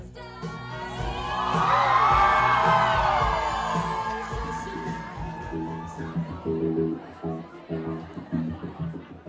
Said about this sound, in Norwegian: Det ljomer av fryd i publikum når vi endelig får kveldens første death drop.